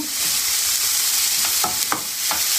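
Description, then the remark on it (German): Expired diced bacon cubes sizzle steadily in a hot pan as they are lightly fried, a dense crackling hiss, with a few soft scraping stirs of a utensil near the end. Fairly loud, no talking. “Leicht anbraten.”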